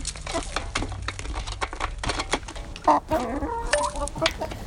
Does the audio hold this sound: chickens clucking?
yes